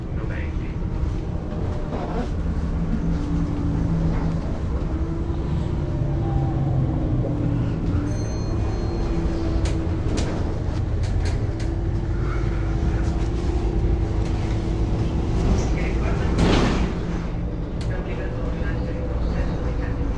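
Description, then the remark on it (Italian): Steady low engine rumble and road noise fill the inside of a moving bus, the drone rising and falling slightly with the motor, with faint murmured voices in the background. “Adesso quando scendo dall'autobus, la prossima fermata scendo,”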